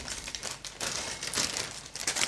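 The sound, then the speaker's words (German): A small 110-gram bag of paprika chips crinkles and rustles as it is opened, in quick, uneven bursts, bright crackling with no speech. “Die Tüten waren auch so kleine Tüten.”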